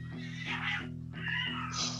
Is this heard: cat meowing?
yes